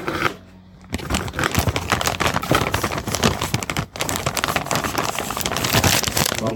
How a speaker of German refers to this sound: Und ich fülle jetzt schon mal die Bodendeckerschicht aus Zwiebel, Paprika, Knoblauch in den Topf.